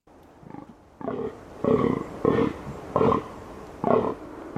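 A rutting fallow deer gives a series of about six deep, rasping belch-like groans, evenly spaced at roughly half-second intervals, the first one faint and the rest loud and guttural.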